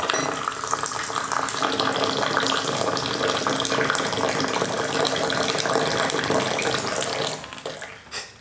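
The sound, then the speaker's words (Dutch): Tea water pours in a steady splashing stream for about seven seconds, spilling onto a table, then trails off into a few faint drips. No one speaks. “heel mijn tafel is hier nat.”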